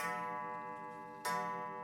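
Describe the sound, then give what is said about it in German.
An old wall clock inside the Schwarzer Adler inn's parlour strikes eleven in the morning, its rich metallic chime ringing and fading before a fresh stroke rings out clearly near the end. No one speaks; the tone is steady. “Draußen pfeift ein eisiger Herbstwind, drinnen schlägt die alte Wanduhr 11 Uhr vormittags.”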